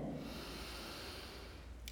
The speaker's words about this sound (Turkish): Hep beraber güzel derin bir nefes alalım mı şimdi?